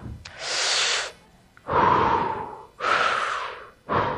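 Four deep, heavy breaths, alternating long inhales and exhales with brief pauses between, loud and airy with no talking.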